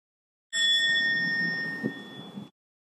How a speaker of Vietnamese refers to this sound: khi nghe tiếng chuông mình không có nói chuyện mình không có suy nghĩ mình theo dõi hơi thở mình lắng dịu thanh tâm mình để cho tiếng chuông đưa mình trở về với trái tim của mình